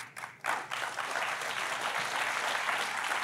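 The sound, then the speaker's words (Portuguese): An audience breaks into light, scattered applause that quickly settles into a steady, thin patter of clapping, sustained but lacking energy, with no voices over it. “Jejum de quem está com fome, é, palmas, palmas assim de quem está com fome.”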